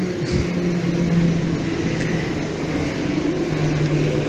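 An airplane passes overhead with a steady, fairly loud rumbling roar and a low droning hum that holds throughout, with no one talking.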